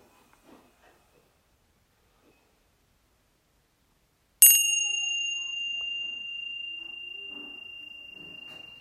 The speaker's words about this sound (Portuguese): Observe que quando o sino soa, naturalmente acontece uma sequência mental de reação.